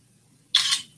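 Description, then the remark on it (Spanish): A single camera shutter fires with a sharp, bright mechanical snap that fades within a fraction of a second as a photograph is taken of the detail of a grille, heard alone over a faint low hum and no talking. “Pero me la ha hecho movida porque tiene el placa tan fuerte.”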